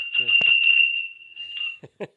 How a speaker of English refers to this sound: No, I have little tinkly bells. Oh, that that's my little hackney pony right there. That's what that is. Yes, yeah. these these are little Canadian open face bells.